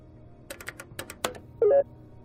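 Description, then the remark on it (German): A quick run of about eight crisp keyboard taps as a solution is entered into an input panel, clear, followed by a short electronic confirmation beep, with no talking. “Bitte gebe deine Lösung jetzt in das Eingabepanel ein.”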